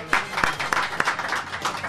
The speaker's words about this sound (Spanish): Ay, sal saludo, un abrazo y aplauso para ella.